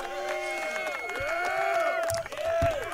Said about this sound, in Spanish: Aplausos de nuevo para esa hermosa democracia, señores.